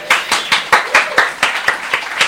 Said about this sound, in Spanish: Jesucristo es el mismo ayer, hoy y siempre. ¿Cuánto dicen amén y le dan un aplauso al Señor?